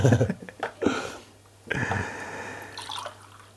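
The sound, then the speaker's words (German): Water splashes and trickles into a glass or container, with a few short bursts followed by a steadier pour that fades out. “Weil wir da ein bisschen auf der Höhe sind, braucht es auch noch ein Wasser.”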